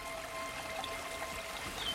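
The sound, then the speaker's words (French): A small stream of running water babbles steadily, a soft continuous trickle with no voices, fairly quiet and even throughout. “Ah, alors là, écoutez ce son. C'est votre ruisseau.”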